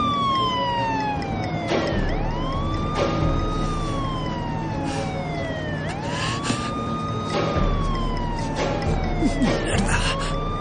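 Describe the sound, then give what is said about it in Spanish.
A police car siren, switched on by a pursuing officer while another vehicle flees, wails loudly, its pitch sweeping up and down in long repeated cycles over a steady engine rumble. “Tom enciende la sirena mientras Glenn huye.”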